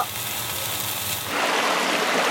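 Steady sizzling of steak on a hot grill, a dense crackle and hiss that swells louder about halfway through, with no voices.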